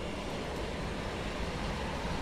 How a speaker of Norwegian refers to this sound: Er det T-banen som suser forbi her etter siden av? Ja,